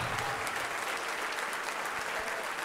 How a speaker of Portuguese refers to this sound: Vamos aplaudir, igreja. Porque este filho estava morto e reviveu, esta filha estava morta e foi achada. Vamos aplaudir e nos alegrar.